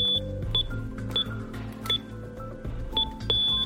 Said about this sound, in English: Gotta disarm the alarm.